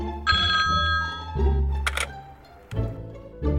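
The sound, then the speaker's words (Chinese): A telephone rings in repeated bursts of bright, buzzing trill over a steady low hum, with a couple of sharp clicks in the middle. No one speaks. “没错，接起电话，让解忧电话亭那头的解忧人来替你分忧吧。”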